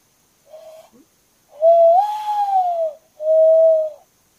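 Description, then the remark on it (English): A person imitates a common loon's call: a short hooting note, then a long rising-and-falling wail, and a steady held note. Fairly loud, with no talking. “I miss it the loons loons are one of my favorite birds mm-hmm. for their call alone. Let me see if I can do it.”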